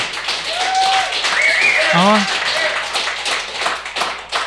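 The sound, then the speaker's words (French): An audience claps steadily and loudly in a dense wash of applause, with a brief vocal exclamation and a few higher whoops or whistles rising over it midway. “Là, il y a plus de monde qui ont applaudi qu'on notre code d'écoute.”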